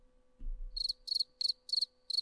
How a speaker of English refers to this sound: Crickets? Yes, yes, there's a cricket.